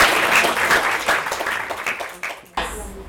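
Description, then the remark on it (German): An audience bursts into sustained applause, a dense crackle of many hands clapping that fades out after a couple of seconds, followed by a brief noisy burst. “Und damit will ich an Sie weitergeben. Applaus”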